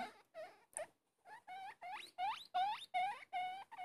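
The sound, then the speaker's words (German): A guinea pig squeaks in a quick run of about eight high, rising whistles, each sweeping upward in pitch, steady in rhythm, with no talking. “Was ihr was fiepen hört, das ist das Meerschwein.”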